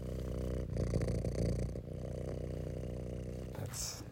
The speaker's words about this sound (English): And right now, um, I'm lying on the day bed, and I've got my cat, one of them, lying on the stomach. You can probably hear her purring.